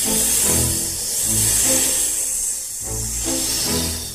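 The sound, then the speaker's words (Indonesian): A python's steady, breathy hiss runs unbroken for about four seconds, sitting over a low, murmuring tonal background that swells and fades. “Lalu, saat ia berpikir, dia melihat seekor ular piton yang sedang tidur di tanah.”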